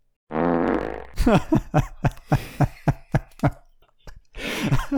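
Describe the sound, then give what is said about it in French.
Farts performed by a professional flatulist, Joseph Pujol, known as Le Pétomane: a sustained buzzing fart opens, followed by a rapid series of short, punchy farts in a rhythmic burst, then a final drawn-out raspy one, all loud with no talking. “Joseph Pujol dit le pétomane.”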